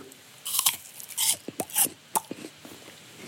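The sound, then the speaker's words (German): Someone bites into a crisp piece of apple with a loud crunch, followed by a quick series of irregular, juicy crunching chews. No one speaks. “kann ich noch ein Stück Apfel klauen von den Äpfeln?”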